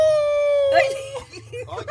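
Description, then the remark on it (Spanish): A person imitates a wolf howl with one long, loud, steady wail that slides slightly downward, then breaks off into excited voices talking over a low background hum. “haz una oración con, con, Deja con qué, con, con, con, con Lobo. Lobo. ¡Woo!”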